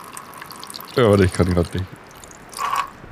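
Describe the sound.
A steady stream of urine splashes and hisses throughout, close by, with a brief burst of male speech over it and the splashing swelling louder again near the end.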